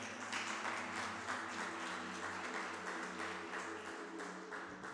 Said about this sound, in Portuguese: Desde quando esse, esse mês, vamos aplaudir a church, gente? Nós estamos completando cinco anos de igreja, amém? Vamos aplaudir.